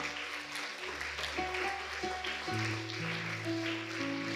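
A church audience claps steadily in worship, a dense wash of hand claps running under sustained musical tones that swell and shift pitch throughout.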